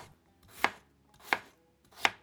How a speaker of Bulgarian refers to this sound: И последният зеленчук, който ще използвам е един от най-разпространените на планетата хранителни продукти, диалектно патат. Него измивам много добре. Обелвам го. И също нарязвам на купчета.